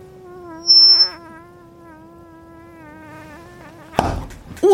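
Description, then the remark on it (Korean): A voice imitates a mosquito's whine with a steady, thin, wavering buzz held for several seconds, ending in a sudden slap-like burst and a brief squeak. “모기가 있는 거 다시 한 번만 더 해줘.”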